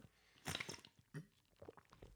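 A quiet sip of water: soft wet slurping and a gulp or two, with small liquid mouth noises in brief bursts and no talking.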